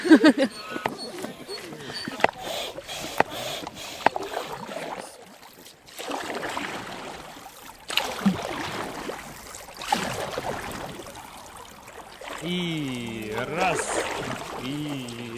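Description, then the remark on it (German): Paddling ten inflatable catamarans downstream on the Belaya River with its gentle current: irregular splashes and strokes of paddles in water, with a steady watery rush and voices talking intermittently in the background. “Mit den zehn Schlauchkatamaranen geht es flussabwärts, der sanften Strömung der Bielaya, dem weißen Fluss, folgend.”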